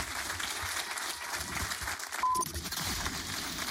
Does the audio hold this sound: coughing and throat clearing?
no